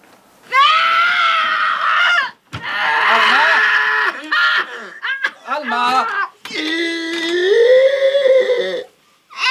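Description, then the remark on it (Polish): An elderly woman in a film lets out loud, anguished screams of terror as she dies, several long wailing cries with brief breaks between them, intense, with no talking. “No, babcia umierając krzyczy.”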